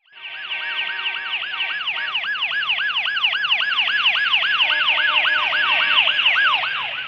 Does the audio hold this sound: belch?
no